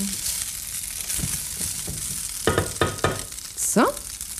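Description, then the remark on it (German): A steady hiss of water starting to boil in a pot, with several sharp metallic clinks midway and a brief rising squeak near the end. No one speaks. “Ich glaube, ich höre, dass das Wasser kocht.”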